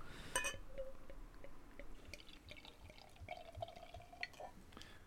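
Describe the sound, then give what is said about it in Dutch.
An extra brown barley wine from a full bottle pours steadily into a glass, a continuous gurgling splash with fizzy crackle and a rising tone as the glass fills, lasting the whole few seconds. “Kan maar lomper inschenken.”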